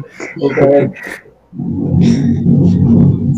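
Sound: thunder rumbling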